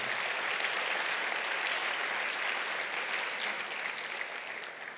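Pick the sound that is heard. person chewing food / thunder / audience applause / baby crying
audience applause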